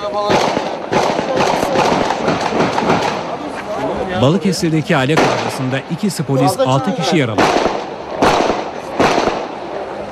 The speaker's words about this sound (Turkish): Balıkesir'de Roman mahallesinde tansiyon yükseldi. Üç aile arasında başlayan tartışma silahlı kavgaya dönüştü. Silah seslerinin uzun süre dinmediği mahallede ikisi polis altı kişi yaralandı. Dört farklı evden 40 dakika boyunca silah sesleri yükseldi.